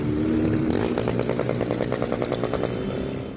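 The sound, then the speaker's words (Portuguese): Motorcycle engines roar loudly and continuously, revving with rapid rattling pulses as motorcyclists speed through the streets of Belo Horizonte, Brazil, in the early hours after midnight, with no talking. “Os motociclistas invadem as ruas de Belo Horizonte.”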